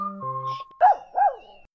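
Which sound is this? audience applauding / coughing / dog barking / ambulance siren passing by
dog barking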